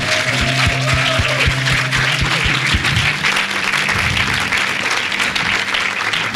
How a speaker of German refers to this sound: Lass uns mal Jesus und den Menschen einen Applaus geben, die ihre Hand ausgestreckt haben.